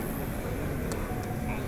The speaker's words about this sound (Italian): Il rumore dei dermografi mischiato a voci e musica mi stordisce.